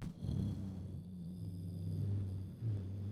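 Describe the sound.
A voice hums a deep, steady drone imitating the low-frequency sound of space in movies, continuous for about three seconds with a slight swell near the end.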